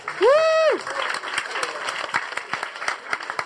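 A crowd applauds with steady, dense clapping for several seconds, opened by a loud, rising-and-falling whoop of a cheer at the very start.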